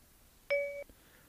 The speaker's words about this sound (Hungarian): ugye a jól ismert csipogás hallatszott, és megkezdődik a felvétel.